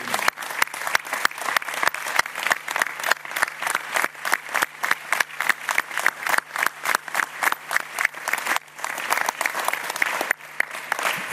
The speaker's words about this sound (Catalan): I un aplaudiment per ells, pel Víctor Font, pel Toni Freixa i els seus equips de campanya. Un fort aplaudiment.